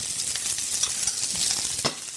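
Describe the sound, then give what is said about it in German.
Steady sizzling of shrimp with a small dab of butter in a hot pan, a continuous crackling hiss with a few sharper pops and scraping stirs, moderately loud, with no voices. “Kleinen Klacks Butter dran. Und lass die jetzt nochmal in der heißen Pfanne einfach nochmal einen Moment ziehen, ne?”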